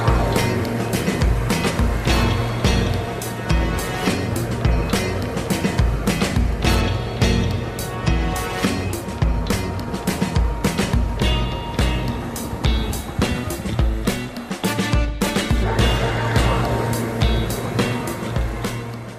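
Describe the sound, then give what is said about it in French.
A personal watercraft roars steadily across the water during a ride, its engine droning loud while choppy splashes and wind buffeting rise and fall throughout. No one speaks. “Oh boy, nous voilà de retour d'une super belle promenade en moto marine.”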